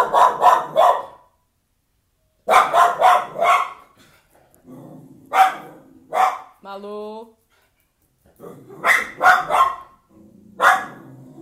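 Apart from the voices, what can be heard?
mixed-breed dog barking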